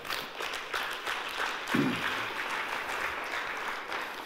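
An audience claps steadily throughout, a dense, even wash of many hands at moderate volume, with a brief low murmur of a voice partway through.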